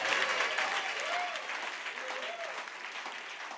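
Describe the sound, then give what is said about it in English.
A crowd applauds steadily, a dense wash of many hands clapping at once, holding a fairly even loudness throughout, with a few faint vocal tones rising and falling beneath the noise. “Clap your hands if you believe that shall be your story.”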